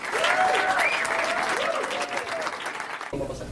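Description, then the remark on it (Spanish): An audience at an Amway business event applauds a woman introduced as a Founders Executive Diamond, with dense, steady clapping for several seconds, while a few sustained whoops and cheers rise and fall above it, the clapping thinning slightly toward the end. “Así que un aplauso para mi esposa, diamante ejecutiva fundadora”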